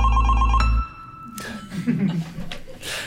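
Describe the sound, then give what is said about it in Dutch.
A loud, tonal telephone ring jingle introducing the radio segment De Evil Phone sounds for under a second, its bright harmonic chime cutting off abruptly, followed by a murmur of people talking and light chuckling in the background. “laten we gaan naar. De Evil Phone.”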